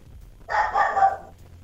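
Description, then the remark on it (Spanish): A small female dog lets out one drawn-out, high-pitched bark, almost a yelp, clear, with a quiet low hum underneath and no talking. “Eh, eh, la perrita me, da, la razón.”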